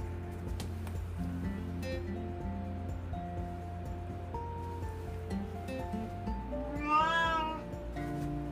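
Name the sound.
cat meowing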